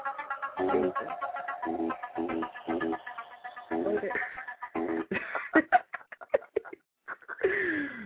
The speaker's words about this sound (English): My phone, mm-hmm, ringing. Oh, someone was calling you? Yeah. With Knight Rider?